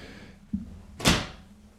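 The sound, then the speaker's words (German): A door swings shut and falls into its latch: a soft knock, then a single solid, moderately loud thud with a brief ringing decay amid otherwise quiet surroundings. “Jetzt ist die Tür ins Schloss gefallen, okay.”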